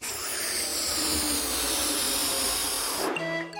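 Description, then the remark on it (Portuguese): A balloon being inflated: a steady, airy hissing rush of air for about three seconds, then it cuts off and a brief higher-pitched tonal squeal follows. “E a resposta correta é alguém a encher um balão.”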